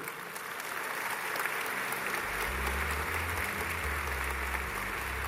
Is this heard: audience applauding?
yes